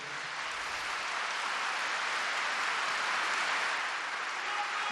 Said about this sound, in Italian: Due giorni dopo, Benedetto è in aula Paolo VI per l'udienza del mercoledì. Non fa in tempo a prendere la parola che viene interrotto da 15 secondi di applausi.